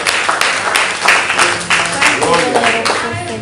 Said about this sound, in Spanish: A Dios sea toda la gloria y toda la honra. Un aplauso fuerte al Señor, amado hermano, a nuestro Salvador.